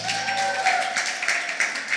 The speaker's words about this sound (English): Thank you so much, Claire. Can you guys give Claire a round of applause?